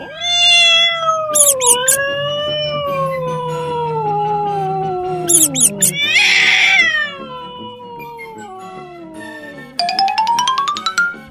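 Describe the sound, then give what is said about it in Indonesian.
A fat cat with thick whiskers meows in long, drawn-out wails that slide downward in pitch, loud, broken by short bright chiming sound effects, with no one talking. The cat is chasing a mouse out of a house. “Maka ia menyuruh seekor kucing gendut yang berkumis tebal untuk mengusir si tikus itu dari rumah kakek.”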